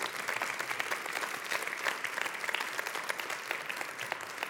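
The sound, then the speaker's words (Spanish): Sustained applause from an audience for Christ Jesus, a dense steady patter of many hands clapping at an even loudness for several seconds, with no voices standing out above it. “dar otro fuerte aplauso a Cristo Jesús.”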